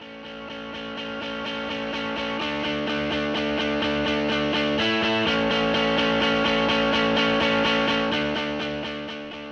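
A dense, distorted music passage with layered sustained tones and a steady pulsing rhythm, playing loud and alone after a brief fade-in, then fading slightly at the end. No voices.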